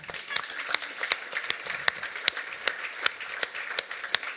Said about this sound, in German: Applaus für meine Frau, schnell!